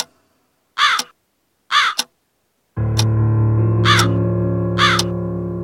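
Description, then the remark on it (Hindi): A crow sitting on an open window beside a sleeper's head caws loudly four times at uneven intervals at two o'clock at night; after the first two calls a steady droning hum comes in and continues beneath the remaining caws. “ठीक उसके सर के पास वाली खिड़की खुली थी और वही कौआ उस खिड़की पे बैठा था घड़ी देखी तो रात के दो बज रहे थे”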